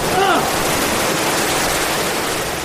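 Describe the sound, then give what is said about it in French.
A waterfall on a rapids ride crashes down in a loud, steady, hissing roar that fills the whole moment, with a brief vocal sound near the start. “J'ai tout pris quoi J'ai été repeint du dos quoi Ah j'en perds mon masque La cascade La cascade”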